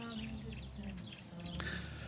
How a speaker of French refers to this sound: Très, très belle matinée. Les oiseaux sont de la partie, vraiment. Ils euh, sont, de bonne humeur euh, aujourd'hui.